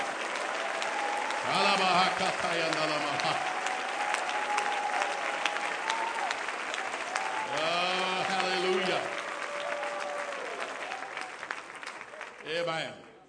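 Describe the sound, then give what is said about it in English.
A church audience claps steadily and densely in praise of Jesus for the whole stretch, a sustained wash of hand claps with voices whooping and calling out over it at a few moments. “Come on, let's clap our hands and praise the King of Kings.”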